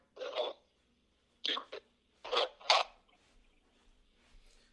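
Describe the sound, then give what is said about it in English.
A voice on a call with a guest talking about martial arts cuts in and out: a few short, choppy fragments of speech separated by abrupt gaps, then the line drops to near silence with faint crackle. “You're breaking up. You, are breaking up a little bit there”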